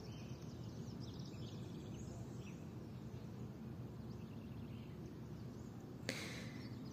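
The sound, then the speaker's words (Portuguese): Many birds sing and chirp in scattered, overlapping calls outdoors, fairly soft, over a steady low ambient rumble, with one sharp click near the end. “Mas bem, que esses cantos dos pássaros me inspirem a falar, a tirar um pouco de dentro de mim.”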